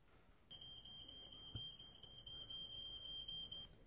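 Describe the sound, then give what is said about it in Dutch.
A smoke detector alarm sounds one shrill, high-pitched electronic tone that holds steady for about three seconds before cutting off, loud over a faint low background rumble. “Dat is een rookmelder.”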